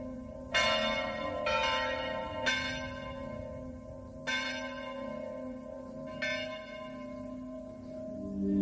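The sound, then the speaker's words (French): Church bells ring out in a steady, irregular peal, five strong strikes with long shimmering overtones that hang and overlap, with no voices present. “J'ai bien évidemment attendu la trêve pascale pour écouter son de cloche, et pour en savoir plus, sur celles qu'on surnomme parfois les Dames de Bronze.”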